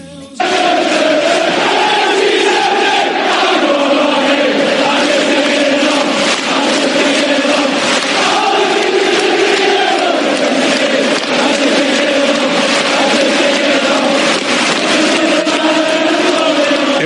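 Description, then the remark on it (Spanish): A large crowd in a Premier League football stadium chants in unison, a loud, continuous wall of voices with a rising and falling sung melody that carries on steadily for the whole stretch. “Esto es lo que suena en los estadios de la Premier League, de Irlanda y de Escocia.”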